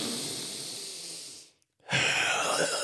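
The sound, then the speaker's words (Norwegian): A voice imitates the heavy breathing done before Bashar is channeled: a long, noisy exhale trailing off, a brief pause, then a loud, harsh inhale, with no words spoken. “Altså han, han har ofte sånn, sånn pustegreier, sånn skikkelig sånn før han kommer altså”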